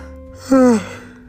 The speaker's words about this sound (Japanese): うああ、大あくびですわ。